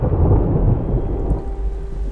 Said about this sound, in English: Amidst the backdrop of a storm in Kuala Lumpur, Tan Yuet Fo stood soaking in the rain.